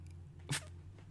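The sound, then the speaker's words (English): A cat makes a single quick, sharp noise in the room, a short bright burst that stands out clearly against a quiet, low background hum. “Sorry, when I spoke of bats earlier, I could have sworn I heard something. It's just my cat.”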